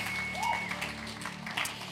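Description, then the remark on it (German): A church audience applauds God after a prayer in a steady wash of clapping, with a faint high-pitched tone or whistle drifting above it. “Lass uns Gott nochmal einen riesen Applaus geben.”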